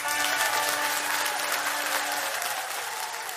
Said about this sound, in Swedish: Nu vill man ha en sån här fanfar och en applåd kände jag.